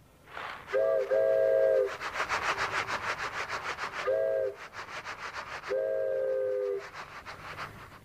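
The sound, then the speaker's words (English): A hand-whittled wooden toy train whistle gives three breathy two-tone blasts, the first and last held about a second, separated by a shorter toot, with rhythmic chuffing noise in between and no talking. “So uh, then this is a train whistle that I whittled.”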